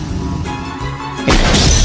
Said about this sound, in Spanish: El disparo es igual en todo.